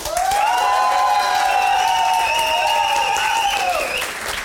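A crowd bursts into steady, loud applause lasting several seconds, with sustained high whoops and cheers riding over the clapping before it fades slightly at the end, as an audience claps to vote in favour of the prosecution.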